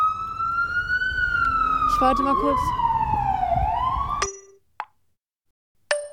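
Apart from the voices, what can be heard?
emergency vehicle sirens passing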